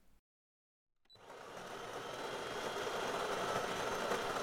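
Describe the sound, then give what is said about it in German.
A coffee machine clicks on and starts up with a steady, loud mechanical whir and hiss that swells slightly and keeps going without a break. “Kaffeemaschine läuft.”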